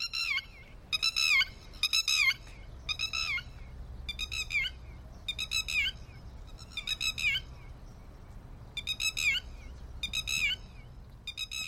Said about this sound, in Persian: نمونه خوب دیگه دیدومکه پرنده ای از خانواده خروسکولی ها اصلا خدایی اسم خانواده رو ببینین خروسکولی همهشون اهل کولی بازی و سرصدا در آوردنن اینطوری